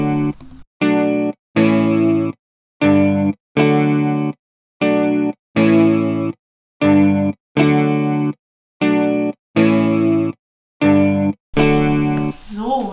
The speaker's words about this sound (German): Ihr hört jetzt einfach gleich eine ganz kurze Sequenz Musik.